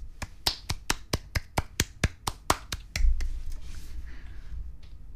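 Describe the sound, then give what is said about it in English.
A single person claps at a steady, fairly quick pace, about a dozen crisp claps over three seconds, then stops, leaving a low rumbling background. “And you hear clapping.”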